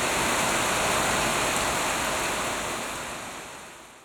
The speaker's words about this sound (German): Kaum ist der Waldgarten angelegt, geht ein tropischer Platzregen nieder und wässert die frisch gesetzten Pflänzchen.